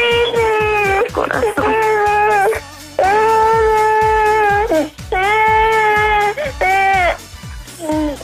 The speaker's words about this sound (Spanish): espérame que mi niña está llorando